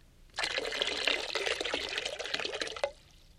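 Water pours steadily for about two and a half seconds, a bright, splashing trickle with small drips, then stops abruptly. Clear, with no voices.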